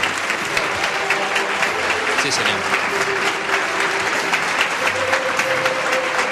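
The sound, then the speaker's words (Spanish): Sustained applause from a large standing audience, including the officials presiding over the event, for the speaker of the 2012 Holy Week proclamation (pregón) in Jaén, a dense steady clatter of clapping hands throughout, with a man's voice talking briefly over it. “Toda la presidencia del acto Por pie también aplaudiendo al pregonero de esta Semana Santa de Jaén 2012”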